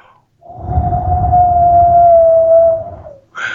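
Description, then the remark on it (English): Wind blowing as a sound effect: a steady, mid-pitched whistling howl held for about three seconds over a low rumbling roar, then fading out before a brief different noise cuts in. “that's just the wind blowing.”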